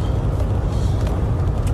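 vehicle, car approaching

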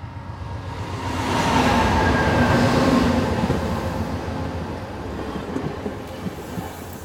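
vehicle, train running on rails

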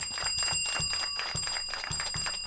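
signal or alarm, bell ringing

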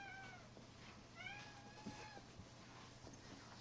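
animal, cat meowing in background

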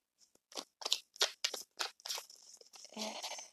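household object, tarot cards being shuffled

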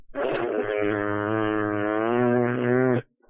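human body sound, fart

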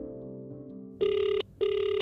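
signal or alarm, telephone ringing

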